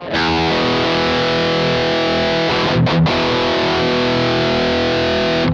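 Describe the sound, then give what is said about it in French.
A classic distorted chord on a six-string electric guitar rings out loud and sustained, briefly cut off and struck again midway, then held buzzing to the end with no one talking. “Donc je vous fais un petit accord euh, classique sur une guitare à, à six cordes.”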